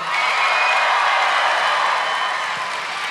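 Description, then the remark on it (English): An audience breaks into a steady round of applause, many hands clapping in a dense, even wash that holds strong for about three seconds before easing slightly. “Round of applause if you think that's fake.”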